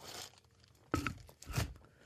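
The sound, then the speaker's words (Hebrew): Crinkly plastic bag with something in it rustling, a soft scratchy start followed by two sharp crackling bursts about half a second apart, fairly quiet, with no voices. “מה זה היה? שקית עם משהו שיכול להתחבר למה שאתה מדבר עכשיו.”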